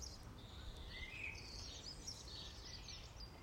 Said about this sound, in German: Alle Vogelstimmen der unterschiedlichsten Sorte. Und ich lade dich ein, ganz bewusst hinzuhören.